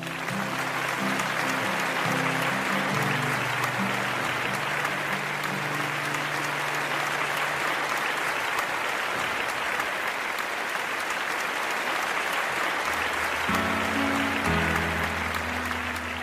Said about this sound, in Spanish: En el nombre de Jesús. Amén puedes darle un fuerte aplauso al Señor en el lugar donde estás.